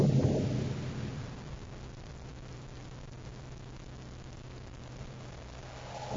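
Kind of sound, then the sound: nature, distant thunder rumbling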